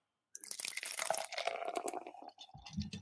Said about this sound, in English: But uh, you know, let's uh real quick here though. We gotta pour one out.